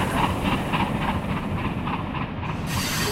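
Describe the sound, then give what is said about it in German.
A steam locomotive rumbles along the rails close by after dark, heading to its shed, its steady hiss broken by regular rhythmic chuffs and clacks, loud and continuous with no voices. “Nach meiner Ankunft, es war schon dunkel, fuhr unsere Lokomotive im Schatten nahe bei mir vorbei, um ihren Stall aufzusuchen.”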